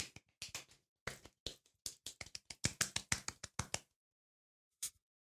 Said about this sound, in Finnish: Kyllä, hyvä pelaajat. Annetaan golf-taputus kaikille.